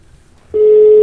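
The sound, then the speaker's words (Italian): A steady, single-pitched telephone line tone cuts in abruptly after a brief quiet moment and holds loud and unbroken to the end as a call to a ski lift facility in Italy goes unanswered. No one speaks. “avranno chiuso tutto, avranno messo i sigilli i carabinieri perché non risponde.”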